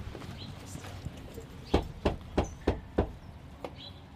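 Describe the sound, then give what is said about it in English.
Five firm knocks on a house door on someone's property in a quick, even rhythm, clear, with a couple of softer taps around them against a quiet outdoor background. “I just um, knock on the door.”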